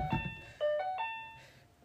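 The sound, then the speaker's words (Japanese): An apartment intercom doorbell, rung for a Yamato delivery of coffee beans, chimes in a quick series of bright electronic tones that ring and fade, heard at moderate volume with no one talking. “なんかインターホンが鳴ってるので少々お待ちください”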